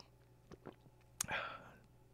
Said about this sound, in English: Just sipping on some coffee.